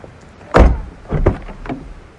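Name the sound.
getting out of car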